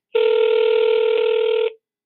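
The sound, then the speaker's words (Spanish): A single loud electronic telephone ring, a steady buzzy tone lasting about a second and a half that starts and stops abruptly, with no voices. “Pero bueno, en tanto, te voy a platicar de alguien que tiene un teléfono que suena más o menos así.”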